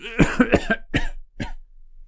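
Heavy, harsh coughing from a man whose voice breaks, in a rapid burst of four, followed by two more separated hacks trailing off, loud with no talking.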